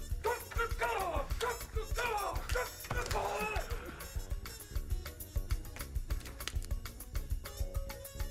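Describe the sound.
Several people imitate chicken clucking in a noisy, crowded mix of rapid clicks and knocks. The clucks are loudest early on, then give way to continued clattering.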